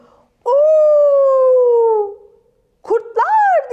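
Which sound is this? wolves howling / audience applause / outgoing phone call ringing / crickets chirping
wolves howling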